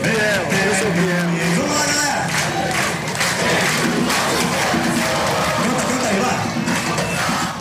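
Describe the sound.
A packed crowd of Corinthians football fans chants and cheers loudly and continuously in a nightclub, celebrating the title, many voices singing together in a raucous celebration that never lets up.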